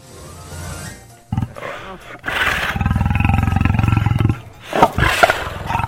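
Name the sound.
tiger roar sound effect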